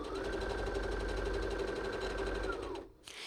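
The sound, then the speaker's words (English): A sewing machine stitches the front and back crotch seams of a pair of pants together, raw edges lined up, running steadily for almost three seconds, a dense, fast mechanical whir with a faint steady tone, then stops abruptly, leaving a brief soft rustle. “I'm making sure that my raw edges line up as I sew.”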